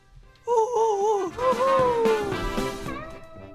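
A loud, high-pitched scream rings out for about two seconds, wavering up and down before sliding lower and trailing off over a busy background.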